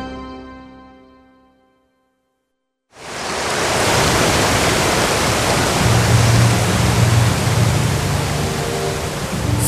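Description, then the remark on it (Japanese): A fading musical tone gives way to a brief silence, then a sudden, loud, sustained roar of rushing water surges in and continues steadily, with a low rumble underneath, as the sea splits in two and a path appears after Moses raises his staff. “すると海が真っ二つに分かれ道が現れた”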